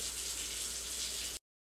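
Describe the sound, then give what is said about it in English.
Water runs steadily from a tap, recorded with a MacBook Pro's internal microphone, a continuous, even hiss at moderate volume that cuts off abruptly after about a second and a half, followed by silence. No voices. “And just to be thorough, this is recording using the MacBook Pro's internal microphone with the same water running in the background.”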